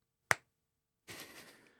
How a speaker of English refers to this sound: "Every time I snap my fingers, a child in Africa dies." And somebody in the crowd went, "Stop fucking snapping your fingers, then."